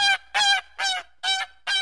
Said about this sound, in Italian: E se non vi aiuta davvero sentire lo starnazzo delle oche, mandateci la vostra amica.